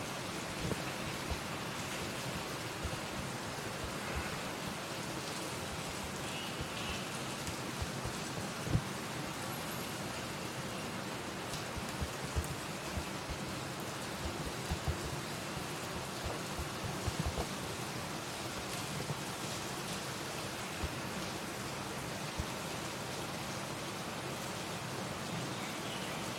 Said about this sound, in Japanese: どうですか雨の音って聞こえますかね雨の音が聞こえすぎて、僕の声が聞こえなかったりするのかなうん、いい音ですよね結構好きなんですよね雨の音